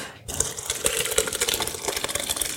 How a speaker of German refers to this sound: Lass mal gucken, was die Linsensuppe macht. Ja, jetzt können wir die in den Mixer packen.